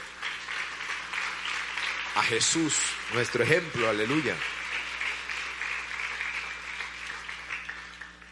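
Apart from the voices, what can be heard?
audience applauding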